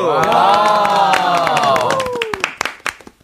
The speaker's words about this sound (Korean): 아, 박수!